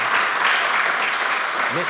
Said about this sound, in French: Sur vos applaudissements pour euh, le Tour de France de l'immobilier. Merci.